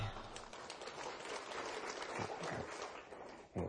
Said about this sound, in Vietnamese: xin tặng cho anh bạn này một tràng pháo tay